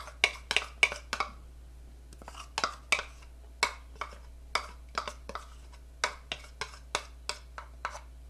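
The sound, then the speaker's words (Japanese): A mixture of egg yolk, milk and cake flour being folded into stiff, fluffy meringue in a bowl, the utensil striking the bowl's side in roughly twenty sharp, bright clinks, arriving in uneven clusters with brief pauses, and no voices. “はい固めのしっかりとしたメレンゲができたのでさっきの卵白とあ卵白じゃない卵黄と牛乳と薄力粉が混ざったものをふわふわの卵白に混ぜますメレンゲですね”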